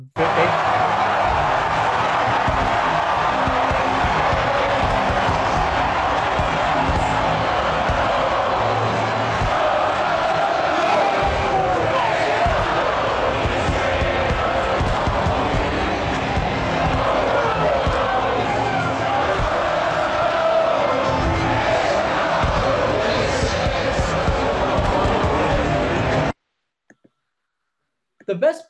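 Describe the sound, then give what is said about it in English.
A stadium crowd cheers wildly at the final out in a loud, continuous roar that barely lets up, with shouting voices mixed in, so loud that announcer Joe Buck had to scream to be heard, until it cuts off abruptly near the end. “part of that about that final out is that Joe Buck literally had to scream like just to be heard because the crowd was completely wild.”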